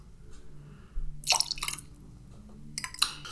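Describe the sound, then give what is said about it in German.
Lemon juice, 25 milliliters, pours into a glass for a cocktail in short splashing bursts, a quick trickle followed by a second brief pour, fairly quiet with no talking. “Wir haben jetzt jeweils einen Schuss reingemacht.”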